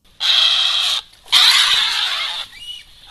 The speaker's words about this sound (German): Hm, klingt irgendwie nach Katze. Genau, das ist die Wildkatze mit dem Spitznamen Eiffeltiger. Das klingt aber sehr wild.